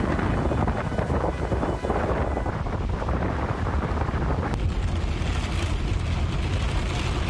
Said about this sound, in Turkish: Etkili sağanak yağışa fırtına da eklenince deniz taştı.